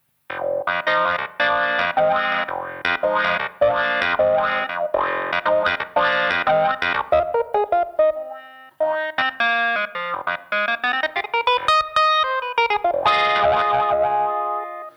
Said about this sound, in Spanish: Y nada, el efecto que hay que hacer un poquito con el, con el teclado es el de bajar pie, subir pie un poquito al tempo de la, de la canción y quedaría más o menos así.